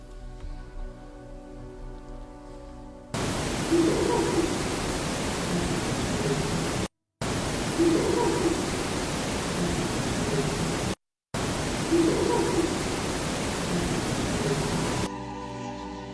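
A psychophony recording: loud, steady hiss of static, played three times with brief silent gaps between, and a faint wavering sing-song voice barely rising out of the noise in each pass.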